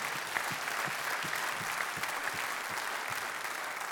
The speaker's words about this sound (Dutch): Hartelijk applaus voor Jeroen Koot.